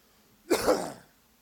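coughing

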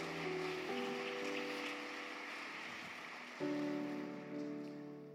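audience applause

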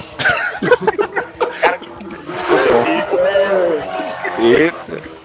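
motorcycle passing by outside

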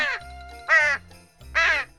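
crows cawing

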